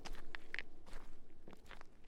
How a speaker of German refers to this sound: Du schlägst die Tür hinter dir zu und hörst ähm, von der Kirche sich entfernend kleine, etwas leisere Schritte wie die von einem Kind, wie sie sich von dem Feld verpissen, quasi.